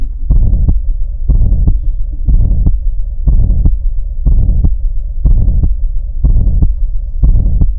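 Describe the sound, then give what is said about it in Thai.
A heart murmur from a leaking heart valve, blood leaking back from the lower to the upper heart chamber as the lower chamber contracts: steady, evenly spaced whooshing beats, about one per second, low and muffled, with a faint continuous hum underneath and no voices. “มันมีรอยรั่วช่วงที่หัวใจห้องล่างบีบตัวเสร็จปุ๊บไอ้ไอ้เลือดมันก็จะรั่วกลับขึ้นไปที่หัวใจห้องบนบนอ่าดังนั้นคือคืออันนี้มันเป็นเสียงมันเป็นเสียงน้ำผ่านที่แคบฟู่ขึ้นไปอ่ะฟู่คือถ้าหากว่ามันมันกันได้หมดเนี่ย มันจะไม่มีเสียงฟู่ระหว่างนี้”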